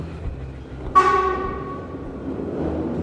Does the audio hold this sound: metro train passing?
yes